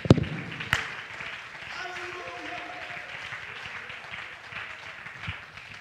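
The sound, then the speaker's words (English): A church audience clapping their hands to the Lord during a sermon, a steady, dense wash of applause, with some voices rising faintly underneath. “Oh, clap your hands to the Lord right now.”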